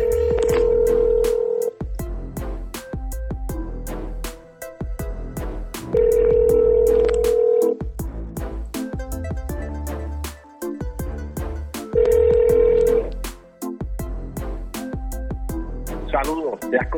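Three steady ringback tones sound at even intervals, each lasting a couple of seconds, as an outgoing phone call rings. A rhythmic music track plays underneath throughout.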